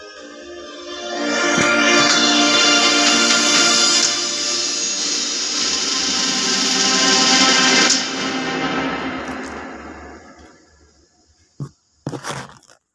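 music playing

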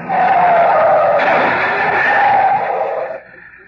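car swerving and skidding

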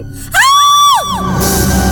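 woman's loud scream

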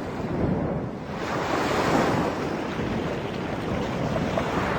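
river water flowing

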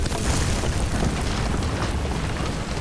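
loud explosion boom

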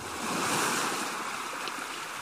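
ocean waves on shore

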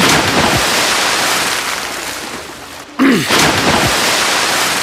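rushing river water

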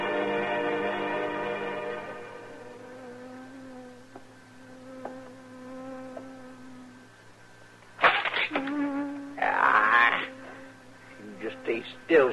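bee buzzing

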